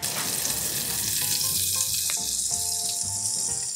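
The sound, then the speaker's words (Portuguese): Butter melts and sizzles steadily in a pan over medium heat, a constant crackling hiss with faint scraping and clinking underneath, no one speaking. “Em uma panela, derreta a manteiga ou a margarina em fogo médio.”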